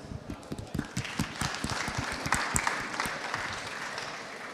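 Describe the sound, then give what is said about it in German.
An audience applauds a contestant called forward for a final face-off round, many hands clapping in a dense, irregular patter that swells slightly midway and holds steady for several seconds, with no voices over it. “Ein Applaus für dich.”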